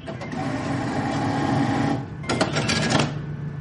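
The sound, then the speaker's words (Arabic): An ATM whirs steadily as it dispenses cash, then after a brief dip comes a burst of rapid mechanical fluttering and clicking as the notes feed out. No voices. “في أصوات كلنا نحبها مثل جمهور فريقك بعد ما يجيب الجول بالدقيقة 90 أو صوت الفلوس وهي نازلة من الصرافة بعد ما نزل الراتب”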